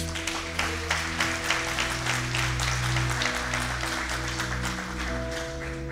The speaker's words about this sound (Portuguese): Se você acredita nisso, aplauda o Senhor Jesus.